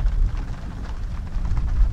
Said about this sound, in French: Alors que l'inspecteur porte la tasse à ses lèvres, la pluie se met à tomber.